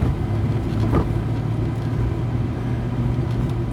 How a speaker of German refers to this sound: Also mein Auto hat ja falls ihr euch erinnert, Auspuffgeräusche gemacht und ist dann jetzt geschweißt worden. Und jetzt ist wieder ein dunkles, tiefes Brummen beim Fahren dazu gekommen.